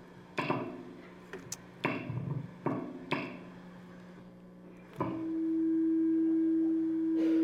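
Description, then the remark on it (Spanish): Audio interference: several sharp crackling pops and thumps at irregular intervals, then a loud, steady electronic hum that starts abruptly and drones on to the end, with no voices. “Creo que hay un poco de, interferencia.”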